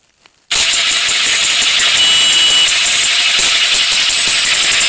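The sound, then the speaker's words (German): After a brief silence, a motorcycle engine kicks on abruptly and roars loud, holding a steady, buzzing rumble until the end with no voices. “Dieser Motorrad.”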